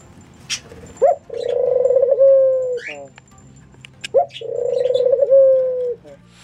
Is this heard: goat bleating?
no